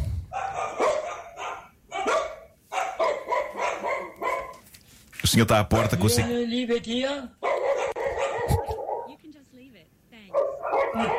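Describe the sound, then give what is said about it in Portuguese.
A dog at the door barks in a burst of loud, sharp yaps mid-clip, with some whimpering yips, while people talk over and around the barking. “E o pobre homem obedece com ar claramente angustiado, quando na verdade o afasta da porta Era para o cão.”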